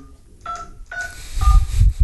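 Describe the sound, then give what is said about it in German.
Three short two-tone telephone keypad beeps ring out in a steady rhythm, each a clear dialing tone, with some low rumbling handling noise rising beneath the last ones. “Oh, ich ruf nochmal schnell wen anders an.”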